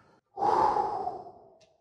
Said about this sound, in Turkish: Hadi. Hadi gelin bir nefes alalım.